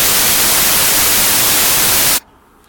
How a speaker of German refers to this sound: Ja, das macht White Noise.